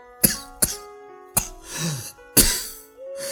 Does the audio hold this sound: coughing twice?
yes